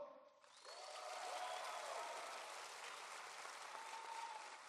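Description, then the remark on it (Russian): An audience bursts into sustained clapping as a vote for a band, holding steady for several seconds, a dense wash of many hands with a few whistles or cheers rising above it. “Надо чем проверить за проверить а. хлопками.”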